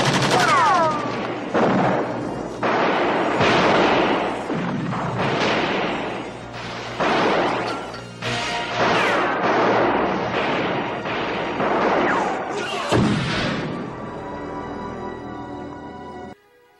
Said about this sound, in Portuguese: Por fim, a polícia faz um ciclo e manda bala no ninja. Depois de 5 mil tiros, o ninja ainda escapa da polícia.